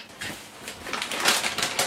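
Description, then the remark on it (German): Crisp crackling of an eggshell being tapped on a flat surface and pried open with fingernails, a quick run of small brittle snaps and crunches over about two seconds, with no talking. “Eier am besten auf, auf einer flachen Fläche kurz drauf ditschen und dann so mit den Fingernägeln reinstechen und dann gehen die ein, springen die schon fast von alleine auf.”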